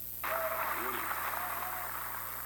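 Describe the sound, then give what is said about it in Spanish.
A crowd applauds as Boris Johnson says farewell. The applause starts abruptly and holds as a dense, steady wash of clapping, with faint voices and brief tonal cries mixed in. “Paralelamente, Boris Johnson se despidió entre aplausos.”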